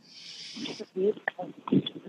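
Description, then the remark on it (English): During a guided meditation, a long, airy breath is drawn in through the nose, steady, followed by soft voiced sounds like someone beginning to speak quietly. “Breathing in,”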